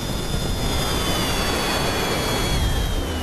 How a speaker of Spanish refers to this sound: Minutos después se apaga el segundo motor.